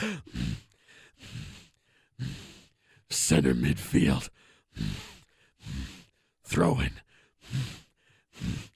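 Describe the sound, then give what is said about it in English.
A voice imitates heavy, ape-like breathing: a steady series of about a dozen breathy huffs and sighs, some with a voiced grunting edge, loud and rhythmic. “or he just starts breathing that way when I see him.”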